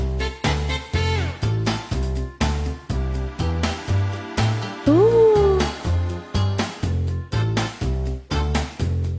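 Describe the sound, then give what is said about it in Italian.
Cat meows sound over a steady, pounding dance beat with deep bass; a brief meow comes early and a louder, drawn-out one rises and falls midway. “Tutta notte stai sul tetto, sopra il tetto con i gatti.”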